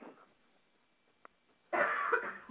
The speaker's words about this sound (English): Okay, no, seriously, you need to mute when I'm coughing.